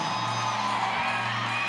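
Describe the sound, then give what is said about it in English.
A crowd shouts and cheers together in a dense, sustained roar, voices blending into a steady wall of whoops and yells that fills the space without pause. “Y'all ain't screaming right.”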